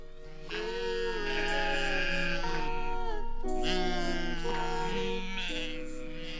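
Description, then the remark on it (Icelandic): Several sheep and lambs bleat in overlapping, wavering calls, some high and thin, others lower, forming a loud continuous chorus with no voices. “Kindirnar og lömpin sem á síðustu mánuðum hafa leiði út í haga gengi um tún”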